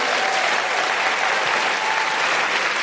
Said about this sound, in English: Just a big round of applause for everyone uh, at the venue here in the South Bank Centre, at the Queen Elizabeth Hall.